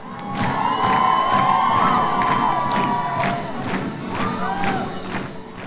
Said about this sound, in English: He keeps the roaring audience on its toes, strumming an air guitar and flipping his hair like an old school rock star.